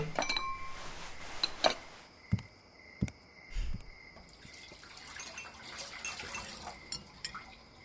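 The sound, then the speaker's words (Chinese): Ceramic bowls and chopsticks clink and knock together as they are washed after a meal, with a few sharp, bright impacts standing out over a faint background of running water and dripping. No one speaks. “呃，那个啥，我吃完了，去洗洗碗筷。”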